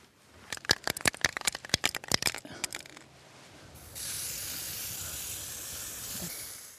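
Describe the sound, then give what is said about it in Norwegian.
A spray paint can rattles with a quick run of sharp clicks as it's shaken, then lets out a steady hiss of black paint spraying onto the white wall of a large building in Noreid, Høyanger, as a 72-year-old artist paints a dog motif. “Svart spraymåling på hvit vegg.”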